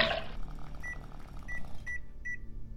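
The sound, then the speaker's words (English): A microwave oven hums steadily while four short, high electronic beeps sound at irregular intervals, clear, with no voices present. “The method involved dismembering the corpse in a kiddie pool, draining the blood, drying the severed parts in a microwave,”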